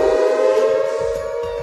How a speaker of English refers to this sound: Yeah, I thought I heard the air raid siren in there somewhere. I thought that's what that was.